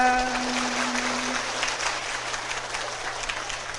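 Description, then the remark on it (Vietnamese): An audience at a Buddhist talk claps steadily after a sung song, a dense patter of many hands at even loudness throughout, with a fading musical tone and low hum at the start. “hình như hát vỗ tay lớn hơn giảng à”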